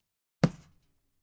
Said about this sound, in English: Twelve. He poked me in the chest.